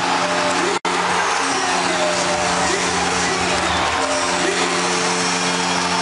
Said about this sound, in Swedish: Och stället går bananas! Fullständigt! Gällereven Center jublar.